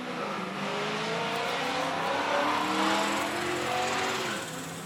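A car accelerates hard outside, its engine rising in pitch as it roars past, loud and sustained for several seconds before starting to fade.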